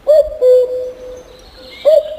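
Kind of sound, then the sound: bird, common cuckoo call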